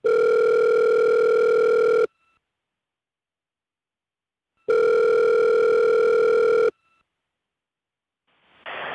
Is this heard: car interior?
no